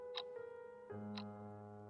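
A wall clock on an office wall ticks twice, about a second apart, each tick a crisp, distinct click over a steady, low droning hum that continues throughout; the clock shows midnight on a rainy night.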